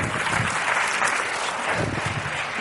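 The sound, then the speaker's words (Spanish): An audience at a live show claps steadily throughout, a dense, even wash of many hands applauding at a sustained level with no voices standing out. “Fuerte aplauso para allá, estaba hecho muy bien.”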